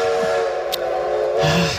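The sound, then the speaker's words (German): A loud, steady train whistle, used as a signal that one hour has passed, sounds for about two seconds, one sustained steamy tone with a breathy hiss rising toward the end, and no voices alongside it. “Ja, entschuldige bitte, aber ähm, der Zug, der uns alle abholt, äh, der meldet sich, egal ob wir wollen oder nicht, nach einer Stunde.”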